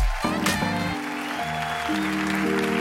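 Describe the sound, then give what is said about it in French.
A crowd at the Montreux Comédie show applauds and cheers loudly and steadily to welcome comedian Benjamin Tranier, the dense clapping washing over upbeat music playing at the same time, with no pause for the whole stretch. “Préparez-vous maintenant à accueillir notre prochain artiste et faites du bruit, où que vous soyez, pour Benjamin Tranier.”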